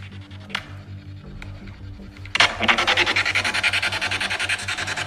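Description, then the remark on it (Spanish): Loud, choppy radio static from a spirit box sweeping in rapid, regular pulses, kicking in abruptly after a quieter stretch of low steady hum and a few faint clicks. No one speaks. “¿Eso es el barrido? Eso es el barrido, pero vos escuchás que no hay una palabra.”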